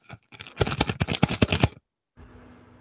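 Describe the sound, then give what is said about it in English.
Crisp crinkling of a cotton-paper dollar bill being taken out of a wallet and handled, a quick burst of dense crackles lasting over a second, followed by a pause and a faint, steady background hiss. “and uh and I and I take out this this this crinkled paper”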